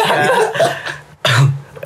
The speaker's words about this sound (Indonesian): itu batuknya ya, guys ya. Itu batuknya. Itu cuma batuknya.